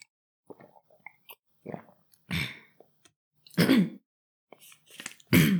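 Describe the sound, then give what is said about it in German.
A person clears their throat several times, with three or four harsh, raspy bursts separated by short pauses and small mouth clicks and breaths, and no speech. “Das Räuspern ist übrigens nicht so gut für die Stimme, ne?”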